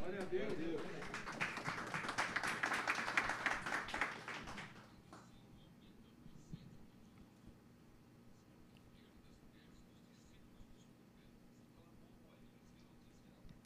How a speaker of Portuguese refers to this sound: sente se aplaudindo, irmãos, glorificando o nome do Senhor, vai.